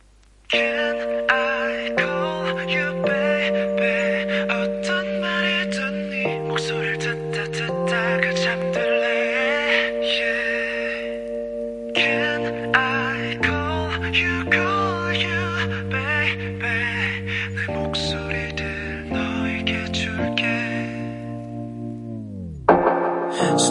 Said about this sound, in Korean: 노래 들어볼게요. 박소영님의 신청곡이에요.